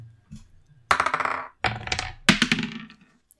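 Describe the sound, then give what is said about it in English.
Three bursts of d20 dice clattering and rolling across a hard table, each a sharp rattling tumble that settles quickly, fairly loud, with brief pauses between throws. “Um, so let's grab our dice. Let's roll a d20.”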